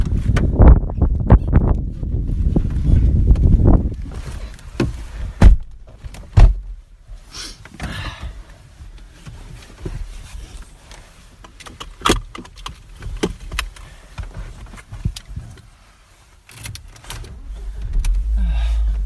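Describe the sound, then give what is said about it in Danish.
A car drives toward the Allé forest with a steady low rumble from inside the cabin, punctuated by scattered clicks, knocks and a brief whirring motor, with no one speaking. “Så nu prøver vi at køre mod Allé-skoven i stedet for.”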